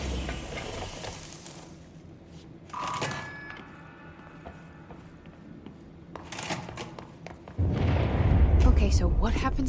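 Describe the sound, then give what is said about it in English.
Scattered crackling bursts lead into a sudden, loud, deep explosion near the end, its rumbling roar sustained, with muffled voices faintly underneath. “again if that thing blows up? Power. Explosion. Too much.”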